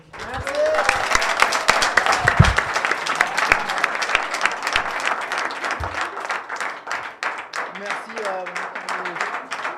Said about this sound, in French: Ben, j'applaudis.